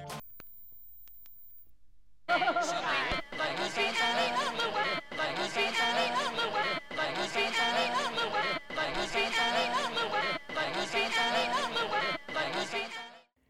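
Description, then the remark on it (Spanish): After a brief quiet start, a short, dense fragment of jumbled voices and music from a vinyl album repeats over and over in a tight loop, each cycle under two seconds, loud and unchanging, the record's lock groove playing the same fragment endlessly. “Este grupo bloqueado Deja tu vinilo sonando en un fragmento determinado del álbum por siempre.”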